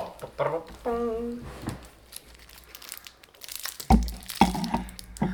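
A candy wrapper crinkles in irregular bursts of crackling and rustling as someone eats sweets, with a short voiced sound near the start and louder crunchy handling toward the end.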